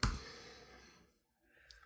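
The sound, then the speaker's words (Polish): A sharp, fairly crisp mouse click sounds once as the "more" option is clicked in Apple Music on a computer, then fades into near silence, with a faint second click just before the end. No one speaks. “Pokaż mi ten utwór w Apple Music, więc klikam więcej.”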